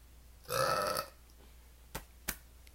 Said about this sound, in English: Oh, I have to burp again. One second.